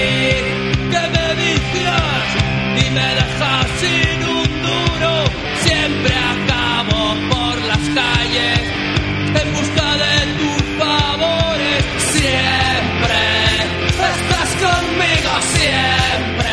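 A song plays loudly and continuously, with a man singing over dense, steady instrumental backing and frequent rhythmic accents throughout.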